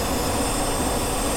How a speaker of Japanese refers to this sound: まだ日も昇らない1月1日午前3時、多くの見物客が見守る中、鹿児島県屋久島にある宇宙センターで打ち上げのカウントダウンが始まります。エンジン点火